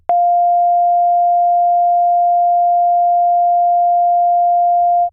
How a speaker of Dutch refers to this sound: Ik laat eerst een toon horen waar 700 hoge en lage drukgebiedjes per seconde voorbij komen.